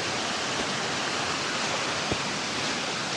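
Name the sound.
waterfall rushing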